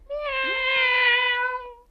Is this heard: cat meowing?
yes